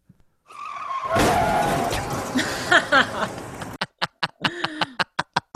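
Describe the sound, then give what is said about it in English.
A car's tires screech in a long, loud skid lasting about three seconds as the car skids into a crash, then a quick series of sharp, evenly spaced knocks follows. “you just parked yourself a, into an accident.”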